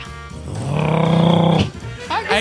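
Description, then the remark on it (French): A person imitates a car engine with one sustained, buzzy vroom lasting about a second, loud, then breaks off into brief breathy vocal sounds. “Fais un bruit d'auto.”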